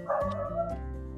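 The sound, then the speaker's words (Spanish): A dog barks in short, sharp yips with a whiny, drawn-out tone between them, moderately loud, with no voices present. “Ya ahorquen a ese perro, por favor.”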